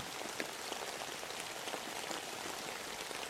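Steady rain falls continuously late at night around a home, a dense hiss of drops pattering on a surface with small scattered taps, even and moderately soft throughout with no voices.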